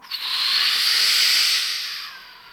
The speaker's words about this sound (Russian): свип в электронной музыке, когда фильтр как бы скользит по спектру, чаще всего это бывает белый или розовый шум